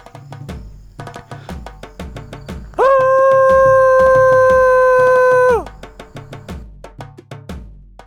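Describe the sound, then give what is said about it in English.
A person imitates a Sasquatch howl, a technique to lure in a Bigfoot: one loud, steady, sustained call lasting about three seconds, held at an even pitch, over a rhythmic, beat-driven musical backing. “All you do is breathe in and then make a loud howling sound.”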